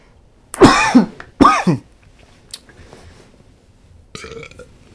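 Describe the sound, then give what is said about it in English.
Two loud, rough, voiced coughs come in quick succession from someone choking on water, followed after a pause by a fainter, raspier cough. No one speaks. “Dude, I'm choking on water.”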